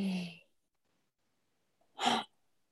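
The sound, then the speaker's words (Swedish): A deep breath, fairly loud: a short breathy rush, a second or so of silence, then another firm, airy breath out. No talking. “Så ja, ett djupt andetag.”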